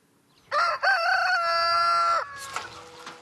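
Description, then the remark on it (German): A rooster crows once, loud, a long harmonic cock-a-doodle-doo lasting nearly two seconds, followed by softer clucking and farmyard rustle, on a poultry farm in Franconian Switzerland keeping dual-purpose chicken breeds. “Auf seinem Geflügelhof in der fränkischen Schweiz hält Peter Schubert zwei besondere Hühnerrassen”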